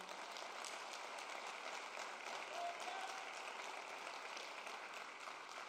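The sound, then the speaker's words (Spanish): An audience applauds the Lord steadily for several seconds, a dense, even wash of clapping hands that holds at a constant loudness without words. “¿Puede dar un aplauso al Señor?”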